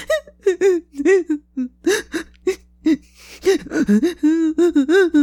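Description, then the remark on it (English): A voice imitates a kobold prisoner in a cell whimpering to himself: a run of short, high, wavering whines and catching gasps, fairly loud, broken by brief pauses, with no ordinary speech. “He's just curled up on himself, wrapped in rags, and every so often he's just whimpering to himself.”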